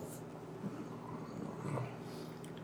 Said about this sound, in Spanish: Ah, perrito.